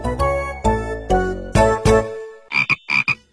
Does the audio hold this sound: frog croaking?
yes